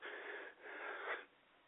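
Two raspy, breathy bursts back to back, a rough chesty cough from a cold, not from smoking, with a wheezy, hissing quality, each lasting about half a second, then quiet.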